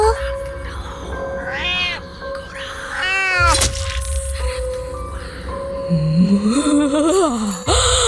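A feral cat yowls several times, long wavering cries that rise and fall in pitch, loud over a steady low background hum, with a final drawn-out, sliding wail.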